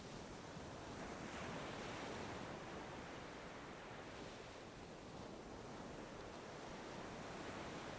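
Ocean waves break on the shore in a continuous, full roar of rushing surf, with gentle swells in loudness and a soft wind-like hiss throughout. No voices are heard.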